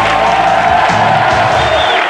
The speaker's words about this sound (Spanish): Gracias, gracias por este merecido aplauso, por mi gran entrada del programa de hoy.